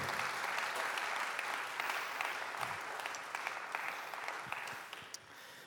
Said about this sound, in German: Gebt doch einen großen Applaus dieser Gruppe von Leuten, die jetzt auf die Bühne kommen.